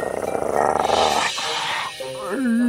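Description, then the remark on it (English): A person does a loud, rough growl imitating a werewolf, a gravelly snarl for about two seconds that breaks into a rising, howl-like vocal tone at the end. “Oh, that's why you didn't want to look at the moon. You're a werewolf.”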